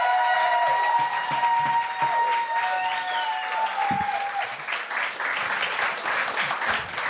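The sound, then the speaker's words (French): An audience welcoming the evening's second judge, Mathieu Pepper, bursts into sustained applause with cheers and whoops, loud and steady throughout, with a few whistle-like tones rising above the dense clapping. “Faites un maximum de bruit pour Mathieu Pepper!”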